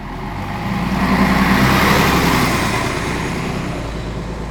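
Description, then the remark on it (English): A large bus engine rumbles loudly, its broad roar swelling as the bus, its doors closed, pulls away and then holds steady. No one speaks. “She ran after the bus, but just as she reached it, the doors closed and it drove off.”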